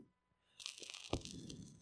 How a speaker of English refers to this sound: Oh, hear that record crackle.